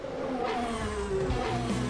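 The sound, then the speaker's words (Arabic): A car engine revs steadily, its pitch rising and falling with some sliding whine, fairly loud, with no voices. “محركات”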